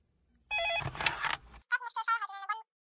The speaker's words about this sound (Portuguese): O telefone não para.